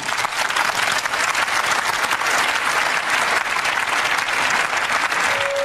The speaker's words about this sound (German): es wird das Ergebnis verkündet, dann gibt es Beifall. Wer enthält sich? Der Antrag ist einstimmig durch den Deutschen Bundestag angenommen.